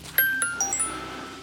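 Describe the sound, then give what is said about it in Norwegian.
A phone's message notification chime rings out as a message arrives: a quick run of four or five bright, bell-like tones that shimmer and fade, clear over a quiet background. “fikk du en melding? Ja, det er fra Khan.”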